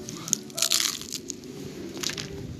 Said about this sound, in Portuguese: Com um barulho de pizza fria.